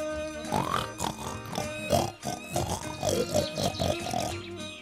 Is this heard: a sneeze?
no